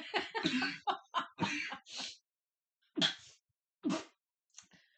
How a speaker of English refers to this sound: Ladies and gentlemen, he is coughing.